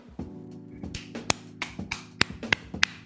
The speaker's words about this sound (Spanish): ¿Son esas palmas flamencas o Ricardo se ha emocionado con las palabras de Shaquille O'Neal?